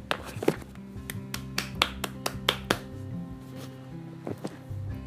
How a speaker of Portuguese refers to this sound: Então eles chegavam, faziam isso, ó, batiam palmas.